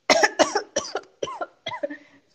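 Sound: cough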